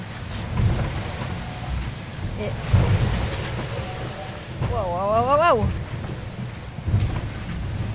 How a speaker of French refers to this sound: Waouh Là, mon bateau, il traverse les vagues.